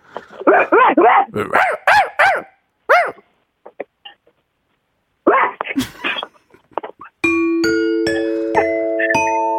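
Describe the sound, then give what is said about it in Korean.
A person imitates an angry dog, letting out a quick run of yappy barks, then a few more scattered bursts before a bright electronic jingle starts playing steadily. “어머니 개, 개 짖는 소리가 네. 똑같지는 않았는데 그냥 그 자체가 웃겼어요.”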